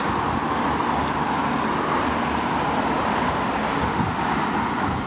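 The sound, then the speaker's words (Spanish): Loud, steady roar of street traffic on the Ronda Norte, with cars rumbling past in a continuous wash of engine and tyre noise and no pauses or voices. “Parece que van todos los coches en, cuarta.”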